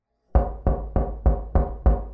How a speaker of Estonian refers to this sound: hakkas kostma summutatud hääli, mis võisid olla vokaalset päritolu ja viimaks kostis mu koridori ukselt kindel koputus.